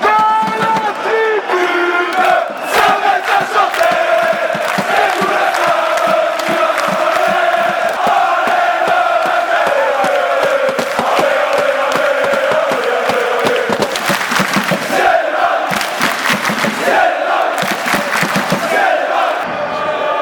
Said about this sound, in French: Il est temps de nous projeter de l'avant vers samedi prochain. Jingle Derby, c'est maintenant.